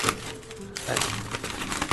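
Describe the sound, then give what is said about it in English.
Busy crackling and rustling of well-wrapped wrapping paper being torn and crumpled, with a steady stream of sharp crinkles running for a couple of seconds. “It's very well wrapped. It's lovely wrapping paper.”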